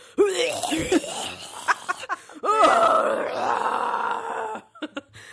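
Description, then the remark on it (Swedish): A voice imitates a man's anguished screams and groans, with strained, wavering cries and guttural moans in bursts, then a long sustained yell trailing off into a few short sharp sounds. “Han stampade jättehögt. och bankade och slog sig själv, lät det som. Och skrek och, och lät så här.”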